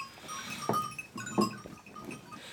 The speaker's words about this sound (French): Un des intérêts de mon élevage, c'est aussi de, d'amuser les, enfants ou même les parents euh, qui sont dans le gîte. Eh ben, le bruit de cloche, ça fait partie aussi du décor. La raison principale, c'est fonctionnel.